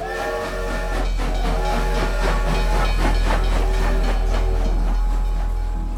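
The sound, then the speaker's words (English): A train, one of eight packed with church followers setting off for New York in October 1903, rumbles along the tracks with a steady clickety-clack, heavy low rumble and hissing steam, loud throughout with no voices. “Then Dowie rented out eight trains and packed them with his followers. Together, they all set off for New York.”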